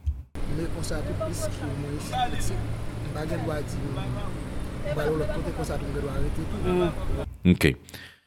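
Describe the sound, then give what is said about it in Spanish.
People behind the recorder talk in the background, their voices overlapping with occasional louder, raised shouts, over a steady low rumble that sounds like rain. The chatter is continuous. “Esas son las personas que estaban atrás hablando hace un momento y gritando, pero incluso también se oye una especie de ruido como si estuviera lloviendo.”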